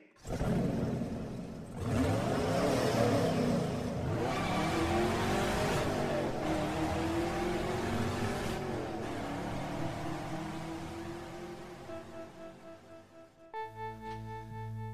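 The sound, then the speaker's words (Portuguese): A car engine roars loudly, revving and accelerating as it pulls away, its pitch climbing and wavering before the noise gradually thins out, with a brief tonal chime at the very end. “Eu vou comprar cigarro, eu te deixo lá de carro, é caminho, vem.”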